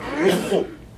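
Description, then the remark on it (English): A single sneeze bursts out, a short breathy, noisy blast with a voiced edge that fades within about half a second. “Bless you”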